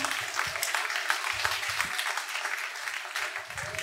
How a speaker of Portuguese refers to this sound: Aleluia! Aplauda esse Deus maravilhoso.